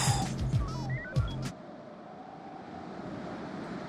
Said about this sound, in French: Sa voix se mêle au bruit du vent et des vagues.